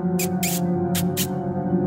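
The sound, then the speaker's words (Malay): A person makes a mouth sound to lure a cat at night in a house, two pairs of short, sharp hissing "psst-psst" bursts, clear over a steady low humming background. “Kadang terdengar bunyi orang bermain dengan kucing dan jelaslah kedengaran bunyi mulut manusia membuat bunyi pancing.”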